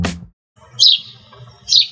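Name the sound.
sparrow chirping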